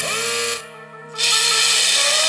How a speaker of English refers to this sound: You want a toy that's fun, you want a toy that's cute, but most of all, you want a toy with a fully functional buzz saw built into its right arm. That's right, you want Buzzsaw Louie.